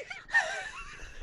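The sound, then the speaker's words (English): A pet cat vocalizes right up against the microphone, one breathy, drawn-out sound lasting about a second, loud and very close, with no talking. “My cat got right up on the mic.”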